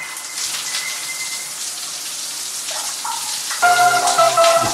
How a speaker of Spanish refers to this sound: Y ahora voy a darme una ducha, Dios mío.